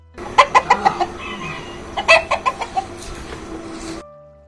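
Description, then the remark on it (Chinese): A rooster gives two quick runs of loud, throaty clucks, about five in the first burst and six in the second, over a steady background hiss with no talking. “公鸡对着狐狸身后喊。”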